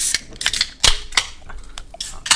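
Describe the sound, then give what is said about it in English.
An energy drink can being cracked open: a quick run of sharp metallic clicks and one louder snap of the tab, each with a brief bright fizzy hiss, and no voices. “Let's get our, let's get these whistles wet. Yeah. While, while the listeners are still here, let's talk about another brand real quick.”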